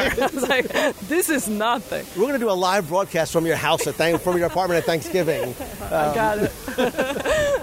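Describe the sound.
A steady, soft hiss of falling water from an outdoor fountain runs continuously in the background while a person talks and laughs close by.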